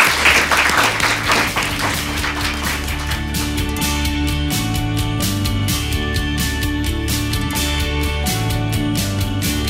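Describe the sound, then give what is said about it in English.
An audience breaks into steady, dense applause thanking a discussion panel, loudest in the opening seconds, while a bed of music fades in underneath and carries on beneath the continuing clapping. “Okay, well, please join me in thanking our wonderful, incredibly knowledgeable panel.”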